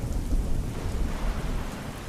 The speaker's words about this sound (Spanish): No podía dormir, mucho menos con la lluvia que caía y golpeaba mi ventana.